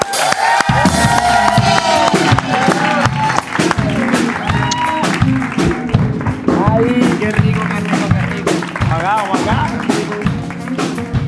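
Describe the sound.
A lively audience on the Rockstar Show applauds a guest, clapping steadily and loudly for about eleven seconds, mixed with shouts, cheers and overlapping voices throughout.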